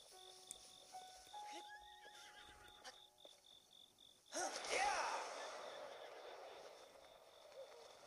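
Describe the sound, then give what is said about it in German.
A horse neighs with a rising, wavering whinny, followed by a louder burst of snorting and shuffling hooves over a faint steady background hum. “Ich möchte das weiße Pferd haben.”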